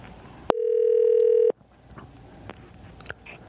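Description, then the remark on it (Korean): A radio show places a phone call to a listener: after a sharp click, a single steady, mid-pitched telephone tone hums for about one second and cuts off, leaving a low hiss and a few faint clicks on the line. “9854님 전화 한번 걸어주세요.”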